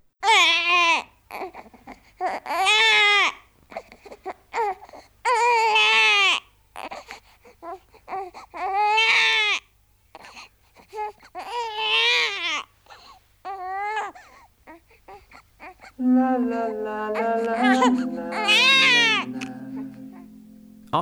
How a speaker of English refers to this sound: After this introduction, the seagull sound effects line up a little differently, with the stereo coming in just a hair sooner than the mono. We'll hear it first in stereo and then again in mono.